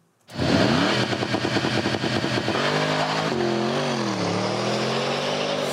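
A Porsche Panamera Sport Turismo engine starts abruptly and revs loudly, with rapid pulsing bursts giving way to a sustained, rising and falling engine drone that continues steadily to the end. No one speaks.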